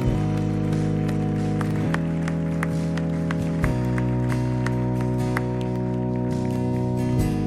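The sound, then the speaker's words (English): An audience claps steadily in a dense, continuous patter of applause as a clap offering of praise to God, with sustained organ-like chords held underneath throughout. “Come on, give a clap offering of praise to our Lord God Almighty.”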